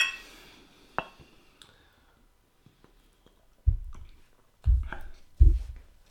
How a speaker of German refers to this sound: Und bevor wir das tun, stoßen wir uns an. Prost.